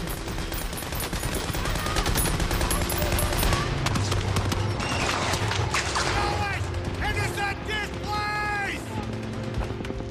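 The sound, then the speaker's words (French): Dense, continuous machine gun fire from a machine-gun nest west of the village of Tilly-sur-Seul: rapid overlapping cracks and bursts form a loud, steady barrage throughout, with rising and falling whine-like tones and voices mixed into the din. “alors que sa compagnie progresse vers l'ouest du village, elle est stoppée dans la matinée par un nid de mitrailleuses.”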